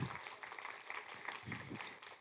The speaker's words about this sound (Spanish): Sí, se vale, se vale aplaudir, se vale aplaudir.